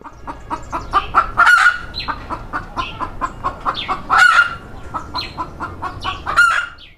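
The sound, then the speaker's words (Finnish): A chicken in Sierra Leone clucks at midday in a rapid, steady stream of short, mid-pitched notes, broken three times by louder, brighter crowing-like squawks, with no voices present. “Sierra Leonen yleisin kotieläin, ainakin tämä yksilö, näyttää kärsivän joko puhetulvasta tai lämpöhalvauksesta.”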